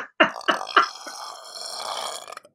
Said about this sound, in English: I'm almost sure I'm going to belch. Wow.